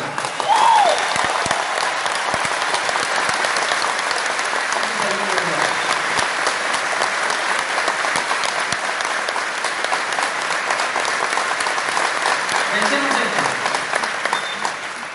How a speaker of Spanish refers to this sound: Entonces les pido un acuerdo. Si van a aplaudir, aplaudan con el corazón. Si no, no aplaudan. yo prefiero que no aplaudan.